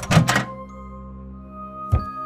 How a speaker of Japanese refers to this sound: その日の夜中、ふと目を覚ますと、また玄関のドアが開き、